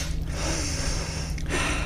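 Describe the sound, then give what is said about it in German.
A deep, audible breath drawn in and then let out: a long airy inhale, a brief pause, then a breathy exhale, with no talking. “Und mit diesem schönen Schlusswort schnaufen wir noch einmal ordentlich durch”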